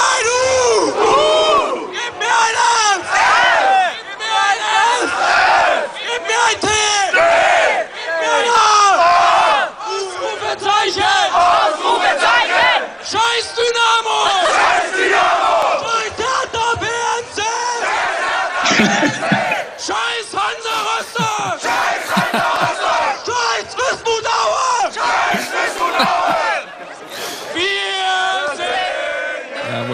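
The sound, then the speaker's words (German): A large stadium crowd of Cottbus football fans chants and roars together in rhythmic bursts, loud and sustained for the whole stretch, with massed voices rising and falling in call-and-response waves. “Ich habe heute noch Kontakt zu, zu den Jungs, die dann wirklich auch das gerade gerufen haben”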